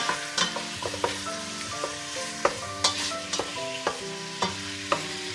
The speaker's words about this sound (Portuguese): podes ir mexendo o frango, tipo envolvendo, devagarinho.